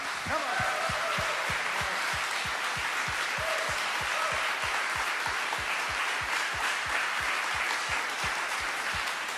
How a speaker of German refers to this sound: Deswegen lass uns doch mal einfach gebündelt all den wunderbaren Leiterinnen und Leitern und Mitarbeitern einfach krassen Applaus geben. Ihr seid so der Hammer.